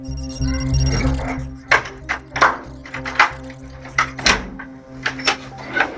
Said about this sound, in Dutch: Tot het moment dat hij de deur opendoet, denken we alleen maar na hoe we hem zo lang mogelijk aan de praat kunnen houden.